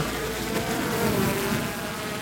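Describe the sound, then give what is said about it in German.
A steady, insect-like whirring buzz of a drone in flight, recording aerial video, holding a constant high hum with no breaks and no voices. “Und dann noch das Video-Highlight, die Drohnenaufnahme.”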